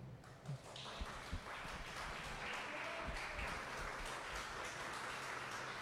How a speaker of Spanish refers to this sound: Dese un aplauso